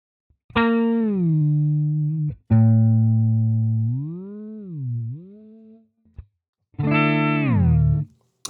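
Electric guitar played through an octave-down pitch shifter: three loud, sustained phrases with a thick, deep tone and smooth pitch bends, separated by short pauses, with no talking.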